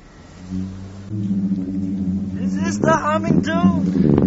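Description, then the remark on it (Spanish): A singing sand dune in Qatar hums as a man slides down from its top: a steady, low droning tone with buzzing overtones that swells slightly and persists throughout, while voices begin talking over it in the second half. “Es la duna que, que canta, ¿no?”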